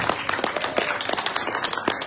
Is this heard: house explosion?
no